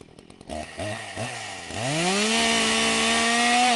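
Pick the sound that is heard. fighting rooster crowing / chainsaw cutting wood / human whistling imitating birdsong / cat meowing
chainsaw cutting wood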